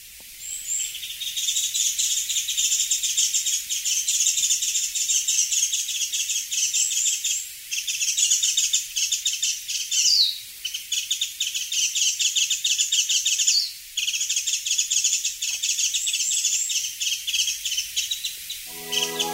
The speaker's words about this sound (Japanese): 朝の小鳥今朝は目白押しを紹介しました